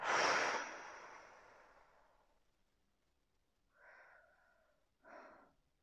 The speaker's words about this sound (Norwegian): Pust inn i nesen. Og ut med munnen.